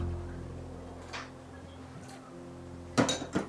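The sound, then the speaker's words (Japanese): Dishes clatter and clink as they're loaded into a dishwasher to be washed again after it failed to wash them, a faint clink early on, then a louder cluster of sharp clanks near the end, over a low steady hum. “食洗機あるあるで洗ったと思ったら洗ってなかったあるあるってあるんですかねわ洗ってなかった食洗機もう一回じゃあ今から洗わないとな”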